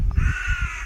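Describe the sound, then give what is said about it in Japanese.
A crow gives a single drawn-out, harsh caw that fills the moment, clear, over a low outdoor rumble, in the evening at Shirahama. “あ、カラスが 今回カラス喋ってますけど はい。”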